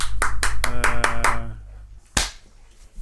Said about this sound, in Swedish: En applåd!